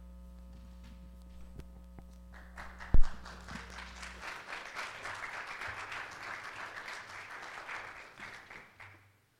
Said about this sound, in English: Thanks, guys. You know, they've never clapped when I got done reading. just, just saying.